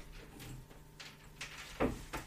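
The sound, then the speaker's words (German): The bottom drawer of a cupboard slides open with a few soft wooden knocks and scrapes as a woman takes out a stuffed toy bunny, the loudest thump near the end, fairly quiet. “Okay, sie geht zu dem Schrank und macht ganz unten eine Schublade auf.”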